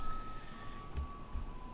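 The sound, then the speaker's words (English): A singing garbage truck in Taiwan plays its tune outside to announce its arrival, a thin steady melodic tone held over a low wash of street rumble, fairly faint, with no one speaking. “That's the singing garbage truck outside.”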